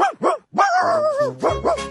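dog barking

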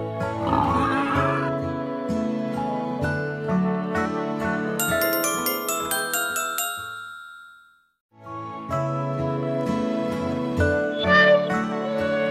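pig oinking

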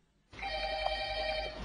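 telephone ringing

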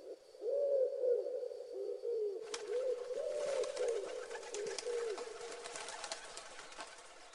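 pigeon cooing

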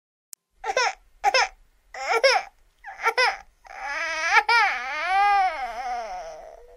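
newborn baby crying

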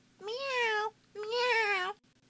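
cat meowing

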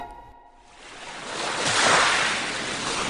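sea waves

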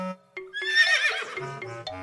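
horse neighing

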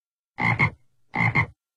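toad croaking

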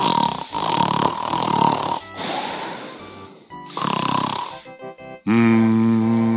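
loud snoring

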